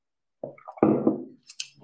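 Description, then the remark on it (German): A sip of water: a short wet slurp and gulp, followed by a couple of soft breathy exhales, quiet, with no talking. “Ihr könnt so viel mehr, als ihr manchmal glaubt und deswegen kommen jetzt hier nach einem Schluck Wasser die Affirmation.”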